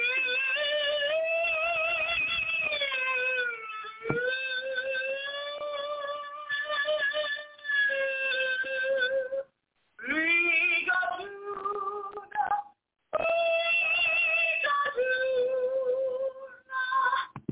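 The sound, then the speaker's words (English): A man sings a show tune from the musical Brigadoon alone, holding long, sustained notes that glide in pitch, with two brief pauses breaking the steady, fairly loud melody. “You get to hear me singing now, singing the song from Brigadoon.”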